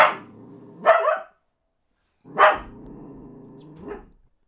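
A female dachshund barks sharply and growls: a few loud barks spaced about a second apart, with a low, steady rumbling growl carrying between them. No one speaks.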